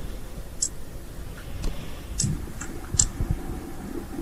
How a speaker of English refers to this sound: Uh, and you can kind of hear like not like almost like a scratching noise. This seems to be coming from the dark corners of your of the of the hotel room.